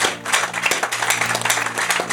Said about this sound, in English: I thought you clap for Jesus.